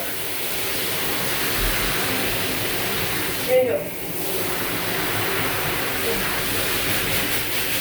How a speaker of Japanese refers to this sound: もう多少お湯をためていくうるさくてごめんなさいね聞こえる私の声まあ聞こえなきゃいいんだけどはいったこの熱いお湯をためたいでうるさかったごめんね